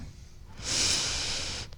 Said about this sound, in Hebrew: ושוב תקחי נשימה עמוקה